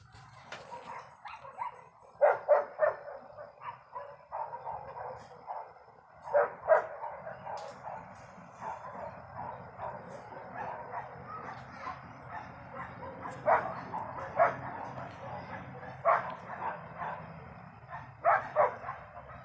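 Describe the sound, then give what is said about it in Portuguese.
Several dogs in a neighborhood bark repeatedly, overlapping in irregular bursts against a steady low background hum, with no one speaking. “Então, cachorros diferentes latindo irritantemente e crianças gritando.”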